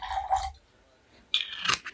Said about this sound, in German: Ja, wir trinken jetzt mal ein bisschen Wasser.